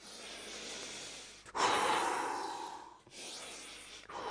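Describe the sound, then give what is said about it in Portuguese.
A person demonstrates the wrong way to breathe to calm down: deep, forceful breaths follow one another quickly, each a loud rushing whoosh of air about a second and a half long, with short pauses between them and no talking. “Se você fizer isso várias vezes, não são respirações fundas seguidas, pessoal. Vou mostrar agora como não é, tá?”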